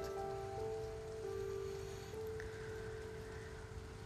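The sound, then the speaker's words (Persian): Steady rain patters on a hard surface, a continuous dense hiss of drops, with a faint tonal hum running underneath and no voices. “حالا که آمدی حرف ما بسیار وقت ما اندک آسمان هم که بارانی است”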